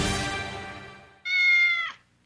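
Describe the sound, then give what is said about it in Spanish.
A cat meows, a harsh cry trailing off and then a clear, drawn-out meow lasting under a second, with no talking around it. “Ay, no aguanto los reguños que me dio el gato anoche.”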